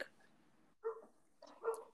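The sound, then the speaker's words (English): Two short, sharp barks from a household dog ring out about a second apart, moderately loud, with a quiet gap between them and no talking. “Our dog kind of likes to bark sometimes.”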